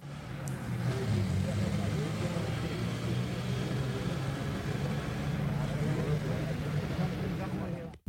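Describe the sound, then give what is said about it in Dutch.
A bus turns with a loud, rumbling engine roar that stays steady for several seconds, with a clatter of mechanical noise and indistinct background voices before it cuts off abruptly. The bus, at the Israeli quarter, drives toward the house of the Israelis. “U hebt eh, zojuist een bus horen keren met veel geraas.”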